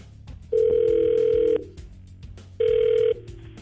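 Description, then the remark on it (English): A phone line rings out as a call is placed: two steady electronic ring tones, the first about a second long, the second shorter, with a faint low hum between them. “We call her up. You stay on the phone, stay quiet, and uh, yeah, we'll try to figure out why she's not calling you back.”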